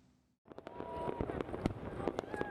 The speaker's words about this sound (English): Fireworks explode over the ancient Parthenon in Athens as Greece welcomes the new year